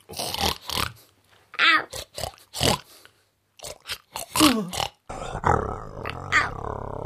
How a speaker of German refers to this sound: Du Schwein, du. Lass hören.